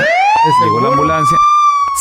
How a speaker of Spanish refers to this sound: Llegó la, ambulancia. Llegó la ah, ambulancia.